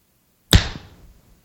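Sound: loud hand clap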